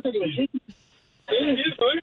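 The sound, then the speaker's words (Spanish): Tinny, narrow-band speech comes through a telephone line in short bursts, broken by a brief stretch of faint line hiss before the voice returns. “¡Escuchen el teléfono!”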